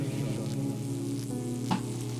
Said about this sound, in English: they'll show up and they'll just hear electricity noises along with a 1H modular synth doing a consistent drone note. What, what note is that? The C sharp.